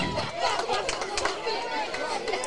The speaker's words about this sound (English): I don't think they know that there's a net down there. it doesn't sound like it. Every time one comes back, there is screaming from the crowd.